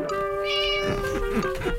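A black cat, Wilbur, meows loudly in one drawn-out cry that wavers and bends in pitch as it trails off, with no talking around it.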